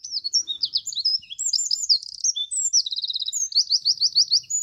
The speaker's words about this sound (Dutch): Maar we gaan nog even één keer luisteren naar die mooie zang van de winterkoning.